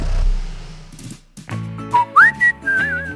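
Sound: person whistling a melody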